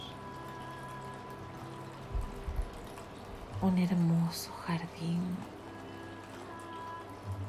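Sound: flowing stream water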